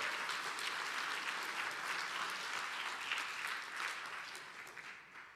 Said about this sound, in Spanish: Dar un aplauso fuerte, Señor.